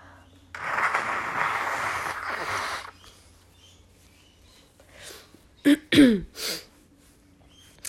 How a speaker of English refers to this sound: Sorry, I'm just going to blow my nose.